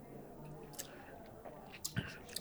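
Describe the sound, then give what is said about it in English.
A quick sip of an Islay whiskey taken during a tasting: a few soft, wet mouth clicks and a brief slurp against a quiet background, with no talking. “The finish, I'm going to take another quick sip right now.”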